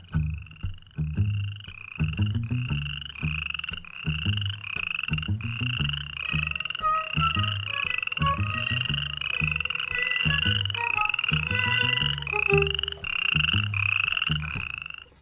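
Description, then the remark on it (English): A dense chorus of frogs croaking, with rapid, overlapping rhythmic calls that pulse steadily and loudly throughout, no voices present. “The landscape there is green and wet. It's the perfect home for frogs”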